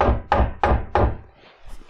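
Four quick, solid knocks on a wooden surface in an even rhythm, fairly loud, followed by a brief quiet rustle.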